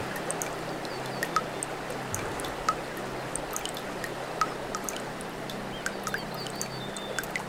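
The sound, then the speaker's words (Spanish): Steady rushing river water flows without pause, gaining speed and force toward the edge of a cliff, a dense, even wash of sound dotted with small sharp splashes and drips. No voices are heard. “Cada vez más rápido, el río viaja a borbotones, ganando velocidad y fuerza hacia el borde de un acantilado.”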